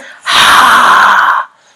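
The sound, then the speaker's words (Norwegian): A voice imitates a wolf puffing: one long, forceful, breathy exhale lasting about a second, loud, with no other sound around it. “Og den peste.”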